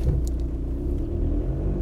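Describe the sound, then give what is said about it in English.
Steady low rumble of a car interior while driving, a constant deep drone filling the cabin with faint higher road noise above it, no voices. “I'm just gonna keep driving, doing my thing.”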